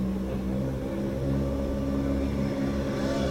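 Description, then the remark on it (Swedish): A steady, loud BMW E30 M3 engine hums with a strong low rumble and layered harmonic tones, holding a constant note throughout, as the car idles or cruises with no talking. “BMW E30 M3 det där är en bil som, som i alla fall jag, om jag hade varit ute i skogen och kollat här under helgen, eh, hade gett en extra tumme upp för eh, just den där eh, karossmodellen och, och M3ans sång.”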